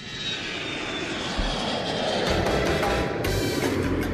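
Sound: airplane engine roar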